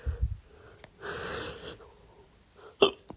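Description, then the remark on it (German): A few sharp hiccups with a breathy, wheezing inhale between them; the last one is the loudest and most abrupt. No one speaks. “Das heißt, ähm, normalerweise ist normaler Schluckauf harmlos und verschwindet wieder von alleine.”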